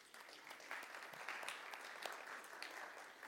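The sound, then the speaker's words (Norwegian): An audience claps steadily for a mother for a few seconds, a dense crackle of many hands with scattered sharper claps standing out, fairly loud and continuous with no voices on top. “En klapp for mamma, da, dere.”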